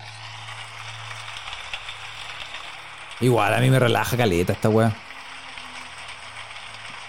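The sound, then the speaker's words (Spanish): Steady, dense patter of rain drumming on a roof, a continuous even hiss throughout, with a person briefly speaking over it partway through. “Cacha, mira, lluvia sobre el techo.”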